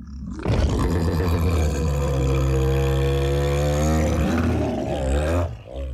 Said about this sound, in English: The bear turns around, stands, and emits a mighty roar.